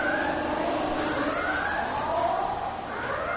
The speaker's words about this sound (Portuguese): Até que a sirene novamente toca, anunciando o fim do expediente.